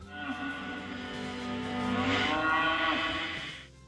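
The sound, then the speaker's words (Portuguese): An ox lets out one long, drawn-out moo, rising slightly and holding for several seconds before fading out, fairly loud with no talking over it. “Somzinho de boi no fundo, pensei que era corno, alguma coisa assim.”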